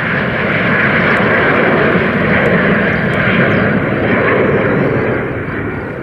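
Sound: jet airliner engines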